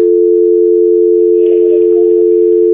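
A loud, steady telephone dial tone hums unbroken throughout, and about halfway in a quick, regular train of faint clicks joins it as a number is dialed live on air during a broadcast. No one speaks.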